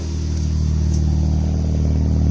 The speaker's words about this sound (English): Hear the muffler. That Step sounds good.